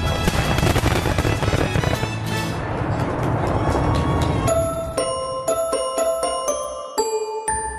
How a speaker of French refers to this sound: pour que l'on puisse tirer à l'heure prévue le plus beau des feux d'artifice qui enchanta autant les amis de la princesse que la nuit elle-même.